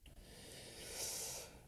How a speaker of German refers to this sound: Vor allem jetzt, der Hund liegt hier und schnarcht und guckt mich.